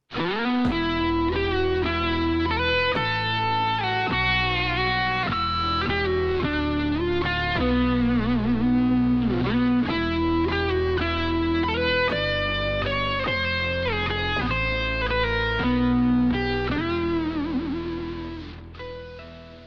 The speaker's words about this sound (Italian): Come mai abbiamo usato la versione della sigla che di solito si usa ad Halloween, anche se non è Halloween?